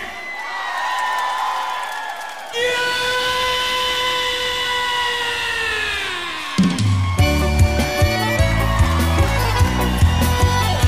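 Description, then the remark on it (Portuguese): A live concert audience in Porto Alegre yells cries of freedom and cheers for several seconds, with drawn-out shouts rising over a noisy roar, before a band kicks into a bouncy, rhythmic chamamé tune. “Quero ver vocês aí com gritos de liberdade.”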